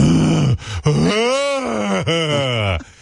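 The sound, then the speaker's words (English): A man's voice imitates the exaggerated groaning of men during sex, a few drawn-out, rising and falling moans with brief gasps between them, loud, lasting about three seconds. “No, no, no, maybe I don't even make noise during it. I don't even go like I don't even understand people like guys who are like”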